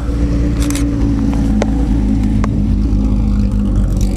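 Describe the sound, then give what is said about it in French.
A loud BMW M1 sports car engine runs steadily, its deep throaty drone filling the scene with a few sharp clicks and ticks on top, and no one speaking. “Vous l'entendez, cette BMW M1 formidable.”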